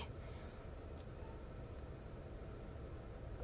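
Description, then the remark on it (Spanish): A steady, continuous whoosh of a car's air conditioning blowing while someone sits inside the car, with a low rumbling hum underneath, even in level and unbroken throughout, with no voices. “Así que si escuchan el del aire acondicionado, no me digan nada.”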